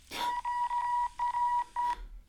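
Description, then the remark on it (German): Beeping radio signal tones of the QAM code, which reports the weather at the landing site: a steady, high-pitched tone broken into a quick run of short and longer beeps at an uneven rhythm, clear and fairly loud, with no voices. “Was ist das, dieses Gepiepe?”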